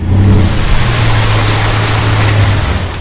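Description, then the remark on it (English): A vehicle engine drones steadily while floodwater surges and sloshes loudly around it, a continuous wash of splashing as a car pushes through a flooded street in Howard Beach one morning. No voices are heard. “It was difficult for cars to get through, including fire trucks responding to 911 calls.”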